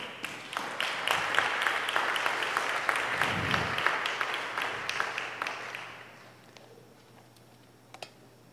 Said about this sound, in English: Can we give him a hand clap offering?